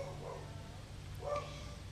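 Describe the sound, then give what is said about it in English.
A single short dog bark rings out partway through, over a low steady hum with no one talking. “So sorry, there's a dog.”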